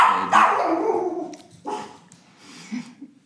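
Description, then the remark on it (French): A dog named Virgule barks loudly, one sharp bark followed by two or three shorter, softer ones spaced about a second apart, with no talking. “voilà, Virgule a donné son avis.”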